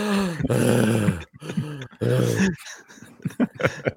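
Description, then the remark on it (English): A man's voice imitates Joel Embiid's heavy, out-of-breath panting as he runs up and down the court: several loud, groaning gasps in a row, then quicker, breathier huffs that taper off. “Um, to hear him panting once as he's rubbing up and down the court, just out of breath, Joel Embiid.”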